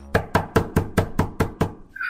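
household object, knocking on a door

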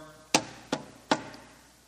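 impact, knock on a door

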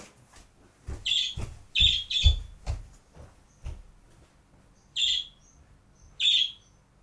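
bird, bird call

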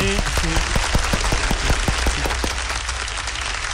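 crowd, studio audience applause

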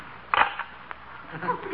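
household object, door slamming shut

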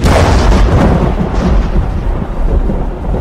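sound effect, lightning strike thunder crack

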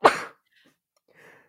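human body sound, sneeze

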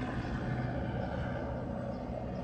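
vehicle, police helicopter passing overhead

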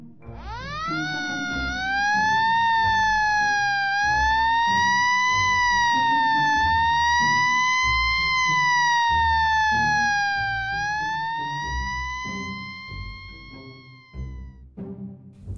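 vehicle, fire engine siren

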